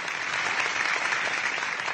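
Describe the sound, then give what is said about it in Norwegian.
A crowd applauds steadily at an internal party meeting where Turkish President Erdogan is speaking to party members, a dense, even wash of many hands clapping at constant loudness with no pauses and no voices rising above it. “Etter applausen sier han.”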